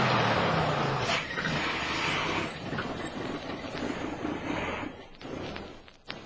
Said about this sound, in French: C'est un 36 tonnes là.